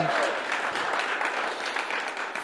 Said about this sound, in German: Und ihr dürft der Lisa mal einen riesen Applaus geben.